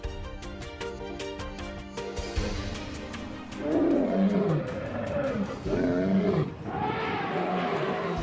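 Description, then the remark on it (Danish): Big cats roar in a wild savanna setting, three deep, growling roars rising loud one after another over a steady background of droning tones and faint rhythmic ticking. “Vi forlod savannen.”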